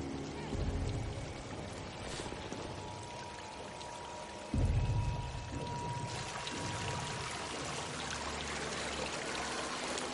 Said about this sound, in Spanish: Atraviesa la caída de agua, se detiene tras ella